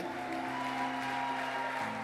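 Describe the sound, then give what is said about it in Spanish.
A church audience applauds the Lord in a steady, continuous wash of clapping that fills the whole moment, with sustained musical tones humming beneath it. “Dale el aplauso al Señor, vamos, ponte de pie.”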